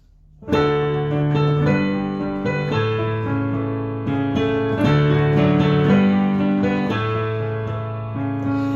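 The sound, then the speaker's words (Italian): An acoustic piano plays the intro of a song, a steady run of full, ringing chords at a moderate tempo, loud, with each new chord struck cleanly over the sustain of the last. No voices. “guida fissa con il suo piano e la sua voce, in questo nostro viaggio fatto di note ed emozioni”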